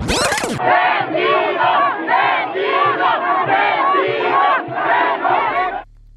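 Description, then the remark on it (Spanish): A large crowd at a citizen march in defense of the INE shouts angrily at PRI national president Alito Moreno. Many voices merge into loud, rhythmic chant-like surges that keep going for several seconds before cutting off abruptly, after a brief harsh burst of noise at the start. “Pese a que era una convocatoria ciudadana, varios políticos se presentaron a la marcha, entre ellos el presidente nacional del PRI, Alito Moreno que para todo lo que le gritaron, mejor se hubiera quedado viendo al Checo Pérez.”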